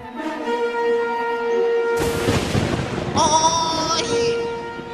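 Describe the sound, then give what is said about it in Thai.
A sudden, loud crackling crash of a lightning bolt striking a stone slab, with no wind or rain, bursts in midway over sustained background music, rumbling for about a second before the music carries on alone. “อะไรกันนี่ ลมฝนหรือก็ไม่มีทำไมอยู่ดีๆ ฟ้าก็ผ่าลงที่แผ่นหินนั่นละ่ะ”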